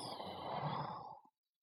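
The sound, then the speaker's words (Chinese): A single long, breathy exhale imitating a cat snoring, voiced by a person. It is steady and airy for just over a second, then cuts off into silence. “最有趣儿的是猫女士，她一合眼就打起呼噜来了，呼呼”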